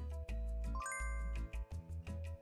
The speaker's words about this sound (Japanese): 先ほどお伝えした通りあのベルの音の場所から変わっていますのでその部分だけ聞いていただこうと思います